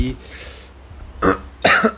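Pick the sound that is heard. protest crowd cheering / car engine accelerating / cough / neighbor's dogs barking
cough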